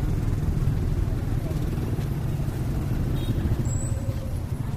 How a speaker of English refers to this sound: This is the retail side, and we go to the wholesale side. it's crazy here, isn't it? Yep. Motorbikes everywhere.